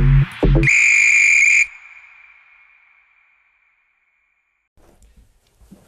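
A loud, shrill referee's whistle blast lasting about a second, preceded by two short low thumps, with a ringing tail that fades slowly into near silence before faint noise returns.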